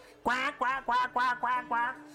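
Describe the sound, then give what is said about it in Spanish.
A duck quacks six times in a quick, steady series of loud nasal honks, with no other sounds around it. “y te relajas cuando de repente, cuando por fin empieza a calmarse la, la hora, un montón de patos empiezan a aparecer dentro entre el agua del mar.”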